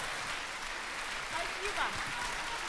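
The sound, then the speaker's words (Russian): Sustained audience applause at a festival after a performance by a singer, a dense, steady wash of many hands clapping at an even loudness, with a faint voice briefly rising beneath it partway through. “Цветы, овации, пожалуйста.”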